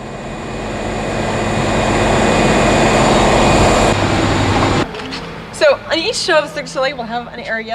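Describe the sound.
Washing machines rumble loudly in a steady, dense drone for about five seconds backstage at a stage production, then the noise drops away and a person begins speaking over a faint hum.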